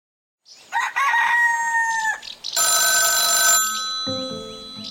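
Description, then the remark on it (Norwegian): A rooster crows loudly, then a telephone bell rings in a bright, rattling burst for about a second, followed by a lingering tonal hum. No one speaks. The call is from the rural police chief at Røros. “Men den påfølgende dag så fikk vi telefon fra uh, lensmannen på Røros.”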